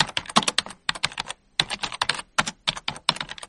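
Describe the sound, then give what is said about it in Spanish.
Rapid typing on computer keyboards during a weekly assessment, dense bursts of sharp clicking keystrokes separated by brief pauses, fairly loud, with no voices. “De hecho, cuando llegó el momento de hacer la valoración semanal, los teclados echaban humo.”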